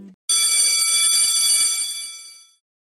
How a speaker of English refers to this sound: I think the school bell is about to ring, so let's get ready to get real.